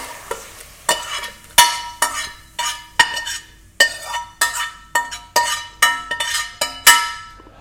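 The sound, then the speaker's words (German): A utensil scrapes repeatedly against a pan in a steady series of about a dozen rough strokes with faint metallic clinks as cooked, salted food is pushed out of the pan into a blender. No one speaks. “Reicht jetzt das, alles zusammen du? hier bitte in den Mixer geben.”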